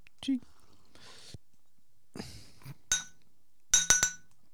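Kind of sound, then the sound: household object, glass bottles clinking together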